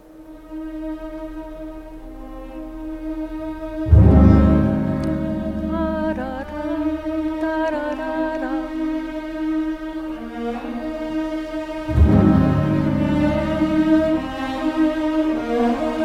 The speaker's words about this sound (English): This is the melody in the wedding movement that we start out with an invocation, just the beginning. Let's listen to that.